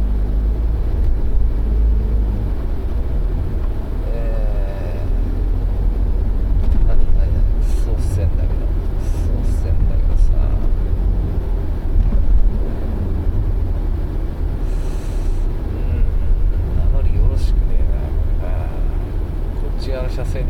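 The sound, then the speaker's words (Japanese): A steady, loud rumble of a car engine and tire noise on the road, heard from inside the vehicle while driving on a business trip, continuous throughout with muffled voices occasionally over it. “【運転中】出張先で急にむなしくなっちゃった”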